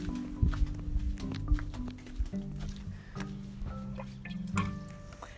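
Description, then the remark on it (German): Water being changed in a pet bowl: soft dripping and splashing mixed with clinks and handling noises, over a low steady hum. “Jetzt mache ich einen Wasserwechsel.”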